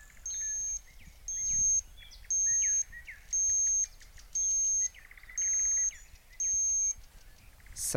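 A digital thermometer used for taking body temperature beeps seven times in a steady, evenly spaced rhythm, each high electronic tone lasting about half a second and sounding somewhat like an oven's beep, with faint bird chirps in the background.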